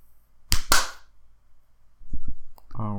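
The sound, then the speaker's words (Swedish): A person slaps their own head as a sync clap for a recording: two sharp, loud slaps land in quick succession, followed by a couple of dull low thumps and a brief voice at the end. “Alltså, jag var ju tvungen att slå mig själv i huvudet för att jag kan ju inte ta bort mitt finger från uh, mikrofon.”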